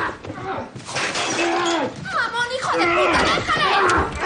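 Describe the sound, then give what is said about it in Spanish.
A loud crash of a glass table being smashed by an FBI agent with his gun during a raid on an apartment, with bright shattering glass spreading across the moment while voices shout and cry out over the chaos. “rompe la mesa de cristal con su arma y el joven corre.”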